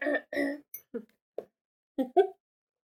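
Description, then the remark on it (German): A string of honking throat-clearing sounds, several short harsh bursts, the first two louder and longer, then scattered shorter grunts and a final pair of coughs after a pause. “Dieses räuspernde Hupen, schön.”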